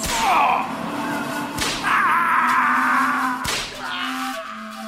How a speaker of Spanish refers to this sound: Por cada falta, tres latigazos.